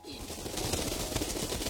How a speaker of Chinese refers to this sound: 忽的一只鸟儿停在了窗外。翅膀扑打在窗户上，发出了扑棱棱的声音。